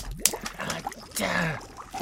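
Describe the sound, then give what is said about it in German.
Sharp woody snaps and crackles of twigs in undergrowth, with one crisp crack early on followed by scattered rustling, brittle breaks, and softer murmuring sounds underneath. “Ich knack das Gehölz.”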